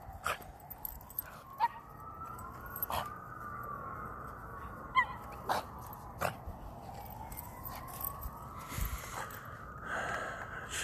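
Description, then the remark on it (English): A small female dog snorts in short, sharp bursts and lets out drawn-out, wavering whimpers, fairly loud, with no one talking. “just doesn't like other small dogs. She's fine with big dogs.”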